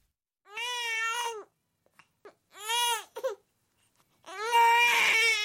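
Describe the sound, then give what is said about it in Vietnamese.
A small child, woken in the middle of the night, cries in three long, wailing bursts, loud, separated by short gasping pauses, with the last cry the strongest and most strained. No one speaks. “Đứa con nhỏ tỉnh giấc giữa đêm và khóc ngằn ngặt, nhưng người vợ không nghe thấy gì hết.”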